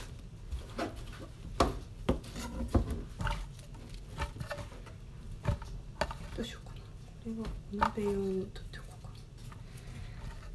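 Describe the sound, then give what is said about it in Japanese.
A knife chops napa cabbage on a cutting board, giving sharp, irregular strikes with short pauses between them, while someone talks quietly over the cutting. The cabbage is being split into parts: pure white parts are sliced for hot pot, and white-and-green parts for light pickles (asazuke). “白菜を刻みながら、最近の眩しい気づきを。”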